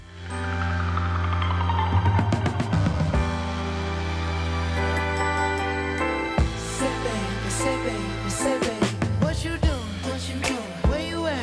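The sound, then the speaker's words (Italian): An instrumental stretch of a funk soul song plays at steady volume, with sustained chords and punchy rhythmic hits; no one speaks over it. “Un progetto che suona più o meno così.”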